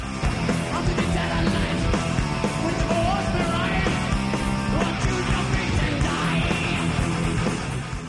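Loud, dense heavy metal: distorted guitars and pounding drums fill the whole clip with a steady driving rhythm, with harsh shouted vocals over the wall of sound.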